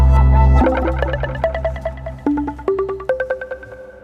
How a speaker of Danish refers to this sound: som jeg lige fik afbrudt her med en lille skiller